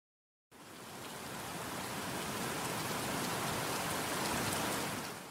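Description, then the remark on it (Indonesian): Steady rain begins to pour down on the way to a bus stop after a brief silence, a dense hiss of countless drops spattering on surfaces, fairly loud and constant with no voices. “Di tengah perjalanan menuju halte, Hujan pun turun.”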